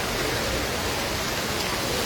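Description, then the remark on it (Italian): Rushing water from the Trevi Fountain in Rome pours and splashes in a steady, continuous roar, fairly loud, with no voices or other distinct sounds over the two seconds. “spero che il rumore del, dell'acqua che, eh, che, scroscia non vi impedisca di ascoltare quello che eh, sto per dirvi”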